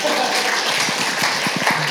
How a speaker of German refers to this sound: Wow! Applaus für Timo, oder?